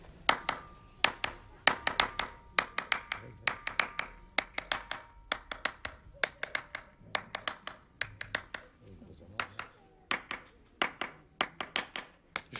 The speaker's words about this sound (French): c'est même pas en tapant avec euh, avec des baguettes, mais c'est en frappant dans les mains. C'est la résonance sur la pierre